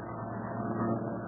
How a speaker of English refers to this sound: No, wait. I think there's still another plane. Usually lags behind the others, to wait and listen.